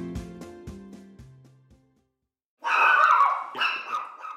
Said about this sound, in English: That's a cute little pup there. What's his or her name? Oh, this is Carlos. He's uh, about nine months old. Yeah. He's a little bit fun to be around, but he's definitely uh, definitely doesn't like being in his kennel while we're talking.